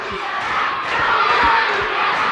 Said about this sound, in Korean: 그리고 드디어 운동회의 꽃, 개주가 시작됐습니다. 청군, 백군 각 팀의 응원이 점점 격렬해졌어요.